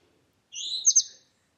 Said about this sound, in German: Ja, jetzt habt ihr den Vogel gehört. Es ist 5 Uhr morgens. Das Vögelchen hat gezwitschert